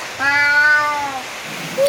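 A single drawn-out cat meow, loud, lasting about a second and sliding gently downward in pitch before trailing off into quiet.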